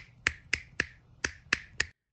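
Six crisp finger snaps in a quick steady rhythm with a brief pause after the third, each snap ringing off with a short tail, made to sense the dimensions of the surrounding space by their echo.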